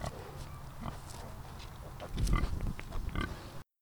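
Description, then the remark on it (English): Seventeen piglets and two gilts, nesting and rooting on a small plot of land at Michigan State University, grunt and oink in a busy overlapping chorus of short snuffling calls with a louder burst of squeals and grunts partway through, no talking. “And because of this project and the dedication of the students and the faculty at Michigan State University, 17 piglets and two gilts are happily nesting and rooting on a small plot of land that they call home.”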